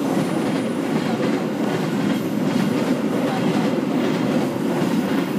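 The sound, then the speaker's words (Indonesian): A train rumbles past, a steady loud roar of rolling wheels and rattling carriages that fills the whole stretch without pause. “nunggu kereta lewat dulu ya”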